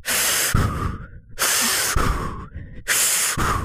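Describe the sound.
A voice imitates heavy, panicked breathing: three loud, rapid cycles of harsh, airy inhales and exhales, with no other talk.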